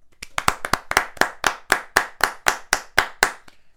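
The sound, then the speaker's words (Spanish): A steady run of about fifteen sharp hand claps as a farewell applause for a guest, crisp and fairly loud, keeping an even rhythm of roughly four per second before stopping, with no talking over them. “Y yo creo que nos despedimos con unos aplausos, ¿no?”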